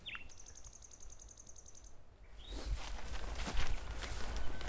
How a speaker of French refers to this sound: C'est un oiseau nocturne.